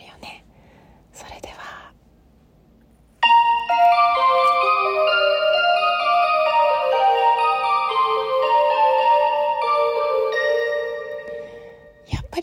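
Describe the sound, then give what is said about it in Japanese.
A train departure bell rings out loud, a bright tinkling melody of stepping notes lasting about eight seconds, after a few seconds of faint rustling; the train doors close after it. “それではドア閉まりますこれってさ発射音の後に閉まるのかな今度調べておきます”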